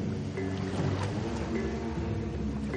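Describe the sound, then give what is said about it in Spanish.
A waterfall in a chocolate factory rushes in a steady, dense roar of churning chocolate, mixing and whipping it, holding an even loudness throughout, with faint low tones humming underneath and no voices. “Es porque se ha mezclado con una cascada.”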